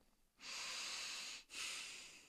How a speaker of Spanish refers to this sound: Lo más profundo que podía y lo más. Eh, exhalaba lo más que podía, todo por la nariz.